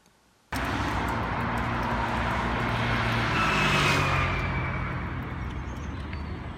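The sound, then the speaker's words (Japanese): Steady roadside traffic noise on a road with separate lanes for cars, bicycles and pedestrians, with a car passing by, a broad engine and tire roar swelling to a peak midway then easing off. No one speaks. “車専用自転車専用歩行者専用と道があるようです”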